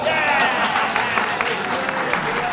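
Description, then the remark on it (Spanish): An audience applauding for the jurists, steadily, a dense, even wash of many hands clapping at once, sustained and fairly loud throughout with no voices standing out. “Un aplauso para los juristas.”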